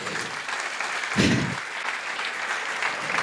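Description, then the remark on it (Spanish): An audience applauds God steadily during a church service, a dense wash of clapping hands that holds an even loudness throughout, with a brief low thump about a second in and no clear voices on top. “Si hay alguien aquí que lo rija el Espíritu, yo quiero que vuelva a aplaudir a Dios”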